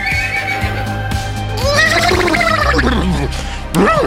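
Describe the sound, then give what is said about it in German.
A person imitates a horse's whinny, a loud, quavering neigh that wobbles up and down in pitch over a few seconds, ending with a rising vocal flourish. “Super, super gewirrt super oh. gewirrt.”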